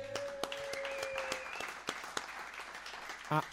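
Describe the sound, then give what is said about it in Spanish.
Applause for the first-place finisher of a competition, with 12 points and four victories: a steady wash of clapping punctuated by a few sharper, isolated claps, holding at an even level, with a thin whistle-like tone early on and a brief vocal sound just before it ends. “un aplauso.”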